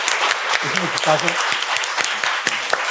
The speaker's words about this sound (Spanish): mi equipo, les quiero decir un aplauso para mi equipo con mucho amor y cariño.